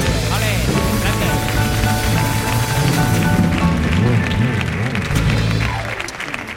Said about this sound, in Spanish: Pues nada, yo eso decirte que estoy flipando de, y por eso voy a pedir otro aplauso para Andrés Guardado que ha venido al show del comandante Lara.